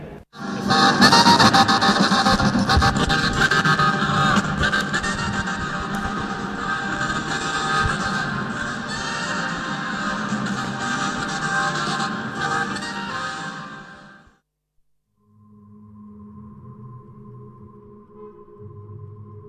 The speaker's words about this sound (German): Echos unter der Weltkuppel waren das eine unerhörte Sounderkundung am und im Uni-Hauptgebäude. Aufgenommen am 30. Oktober oder was der 31. in Hamburg.